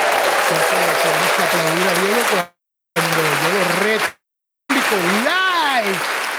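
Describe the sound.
Steady, loud applause in three bursts split by two short silences, with a voice talking and calling out over the clapping throughout.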